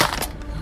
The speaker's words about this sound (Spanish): se hizo bosta el celular. Ahora sí, con esta funda no, no me va a pasar nada.